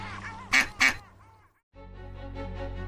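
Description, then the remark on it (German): Two loud duck quacks sound in quick succession as the ducks are offered bread, then fade into quiet; after a brief silence a steady, droning background sound comes in. “Noch ein Stück Brot für die Enten, Frau Esels?”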